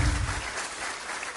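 An audience breaks into sustained applause for Doctor Laura in recognition of her term of office, a dense steady patter of many hands clapping at a fairly even loudness throughout, with a brief low rumble at the start and no one speaking over it.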